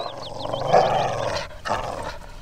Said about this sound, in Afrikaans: 'n Wille hond wat vir Sanet grom en blaf.